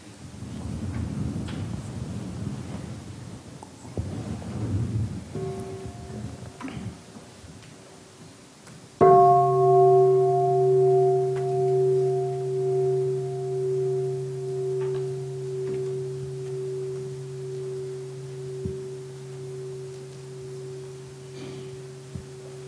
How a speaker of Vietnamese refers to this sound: muốn thịnh chuông thì thịnh đi